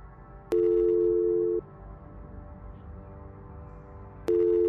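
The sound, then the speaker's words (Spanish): A phone line rings twice on a call to a police inspector's office, each a steady electronic tone lasting about a second, separated by a long pause filled with faint line hiss, as heard by the caller waiting for an answer. “Suena dos veces.”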